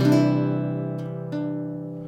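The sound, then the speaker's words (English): A guitar chord, a C major chord with one of its C notes changed to a D, is strummed and left ringing, clear, with two lighter strums or plucks following about a second later as it fades. No one speaks. “I'm really enjoying playing the guitar.”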